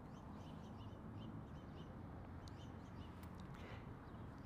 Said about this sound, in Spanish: No sé si alcancen a escuchar esos cantos de los pájaros.